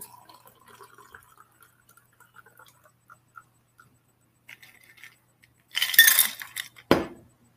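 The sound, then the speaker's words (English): Faint glassy clinks and drips, then a short, loud splashing pour of a drink into an old-fashioned glass, ending with a dull knock as something is set down. Clear, with no talking. “Yeah and I'm using uh, old-fashioned glass. Yep. And just pour it.”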